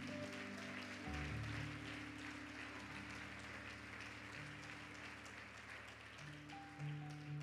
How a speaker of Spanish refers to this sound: Gracias Jesús. Dale un aplauso a mi Señor Jesús.